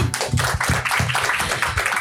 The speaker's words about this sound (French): On peut les applaudir. Merci.